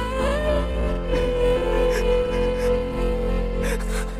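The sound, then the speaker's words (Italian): A man whimpers in a thin, wavering voice, sounding close to tears. The sound is continuous, over a steady low background hum. “Oh cazzo, ora che fai? Ti metti a frignare?”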